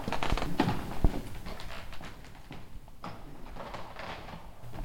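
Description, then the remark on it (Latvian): A door is unlocked and opened onto a grand classicist-style hall in the Jewish community house at Skolas iela 6, Riga: a few sharp metallic clicks and knocks near the start, followed by a steady low rustling and shuffling background. “Atslēdza durvis.”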